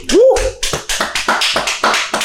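Brisk, steady hand clapping, about nine sharp claps in quick succession, loud and even, opened by a short rising vocal whoop.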